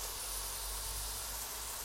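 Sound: pork belly sizzling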